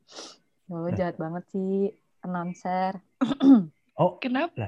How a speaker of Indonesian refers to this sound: Kok batuk-batuk doang?